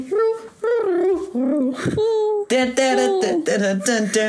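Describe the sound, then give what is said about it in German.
A fairly loud voice imitates pigeon cooing with a run of wavering, rolling hums that rise and fall, separated by short breaks. “Und plötzlich klingen Tauben so? Nein, Tauben machen so.”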